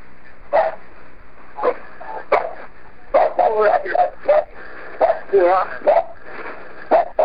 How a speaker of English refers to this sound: In the original 911 call, there is a long period of breathing and what sounds like a whimpering or a crying. There is also about a minute of their dog barking.